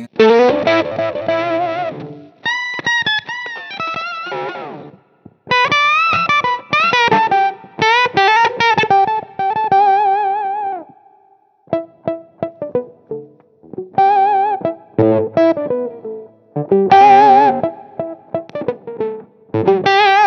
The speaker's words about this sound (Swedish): man kan ha mycket gain på, mycket drive och få oktaveffekten då, så har jag märkt på de flesta sådana här oktavfuss-circuits, om man sätter, nu sätter jag fussen på noll.